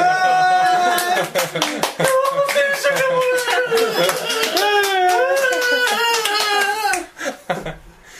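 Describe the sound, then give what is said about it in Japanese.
An audience of about 300 people claps in loose, uneven bursts while voices call out and cheer over the top, with the applause thinning out toward the end. “ちょっと300人いるにしては拍手が緩いよね”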